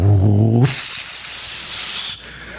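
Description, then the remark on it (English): A voice imitates a kettle of soup boiling over on a stove: a short low hum, then a loud, sustained hissing 'sss' for about a second and a half before it cuts off. “you think it just boiled over.”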